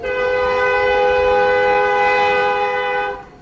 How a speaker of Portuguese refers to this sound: Os trilhos da cidade de Barbacena, em Minas Gerais, foram testemunhas silenciosas. Além de levar pessoas, carregavam consigo o peso de destinos de milhares. O apito do trem de doido anunciava a chegada dos condenados.